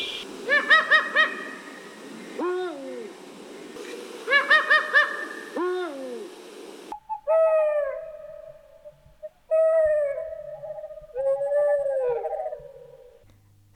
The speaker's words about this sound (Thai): สียงที่ได้ยินนั่นก็คือเสียงของนกฮูกจากอเมริกาและจากยุโรปค่ะ ซึ่งเป็นคนละชนิดกันและอยู่คนละประเทศกัน